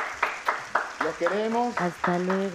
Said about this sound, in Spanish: Un aplauso para nosotros, un aplauso para ustedes.